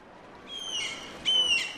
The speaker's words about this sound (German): Der Hafen in Rostock an der Unterwarnow. Möwen kreischen über uns.